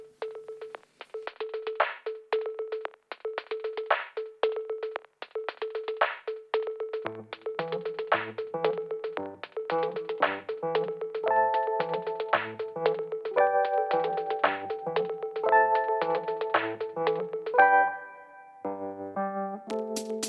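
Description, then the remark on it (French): A French pop song intro on the radio: a bright, steady pulsing synth note with plucky keyboard hits, then a bass line joins and chords build up, shifting near the end. No singing yet. “Je vous propose de faire une deuxième pause musicale.”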